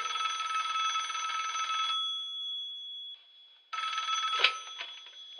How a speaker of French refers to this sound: Sur ce trêve de bavardage, jingle.